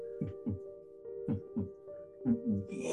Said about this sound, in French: Puis là, vous entendez, comme votre dernière euh, séance de rêve, votre cœur battre dans vos oreilles.